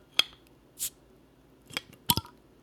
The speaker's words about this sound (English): I'm gonna crack a cold one. Cheers